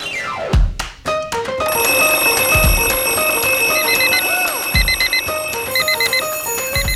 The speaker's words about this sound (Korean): 매일 아침을 깨우는 지독한 알람 대신에 …가 조종을 올려드립니다.